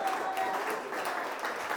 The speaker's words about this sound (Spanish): Dale un aplauso al que vive.